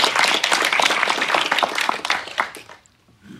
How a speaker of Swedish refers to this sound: Vi är så glada. En applåd.